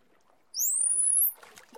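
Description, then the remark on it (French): A dolphin whistle from a pod of dolphins, recorded underwater by four hydrophones attached beneath a ship's hull: one clear, high tone that glides steadily upward for under a second, followed by soft crackling water noise. Nobody speaks. “Ce que tu entends là, ce sont leurs sifflements.”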